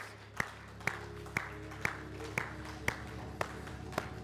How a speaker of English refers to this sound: Come on to give the Lord a clap of praise.